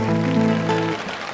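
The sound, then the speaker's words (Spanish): A song's final sustained chord fades out under a steady wash of audience applause, which continues alone as a dense, crackling patter once the music stops; performed on Chilean Musician's Day. “Para que venía el aplauso inmediato.”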